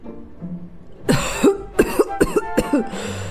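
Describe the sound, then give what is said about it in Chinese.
A grandfather has a fit of harsh, raspy coughing, a rapid string of about six loud coughs with a wheezy edge, heard alone with no talking. “这时啊，米卡听见有人在咳嗽，他转过身一看，原来是爷爷。”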